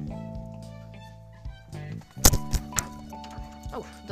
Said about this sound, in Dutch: dat was mijn telefoon.